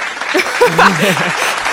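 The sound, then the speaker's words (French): Steady applause from a group fills the moment, a dense, continuous patter of clapping, with a voice briefly rising over it midway through. “On peut donc l'applaudir.”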